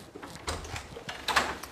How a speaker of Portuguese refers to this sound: Eu estou rindo porque o Duque está batendo na porta, ele espera eu começar a gravar para vir querer vir, né?